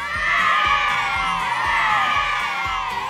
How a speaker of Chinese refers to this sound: 女孩们欢呼着，拥抱着凯迪。